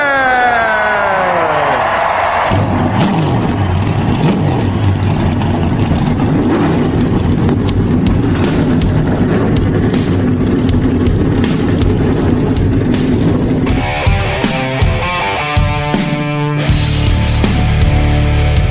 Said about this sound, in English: Driver! start your engine.